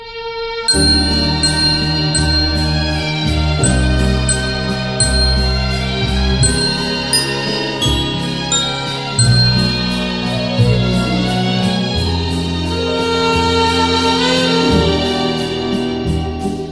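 A recorded song's instrumental intro plays loud and full, with layered instruments, a steady bass line and crisp, regular percussion ticks keeping the rhythm; no one sings or speaks yet.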